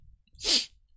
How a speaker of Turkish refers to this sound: Pardon hapşıracağım gibi geliyor da. Çok yaşa.